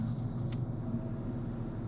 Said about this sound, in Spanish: Estoy en un coche en una autopista de camino a Venecia